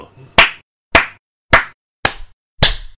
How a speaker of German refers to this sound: Jetzt klatschst du auch schon mehrmals? Ich habe immer zweimal geklatscht am Ende.